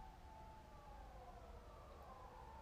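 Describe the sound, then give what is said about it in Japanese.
A siren wails steadily at 6:20 in the morning, its tone drifting slightly over a low background rumble, faint with no voices present. “サイレンになってますね聞こえますでしょうか今朝6時20分なんですけれどもね”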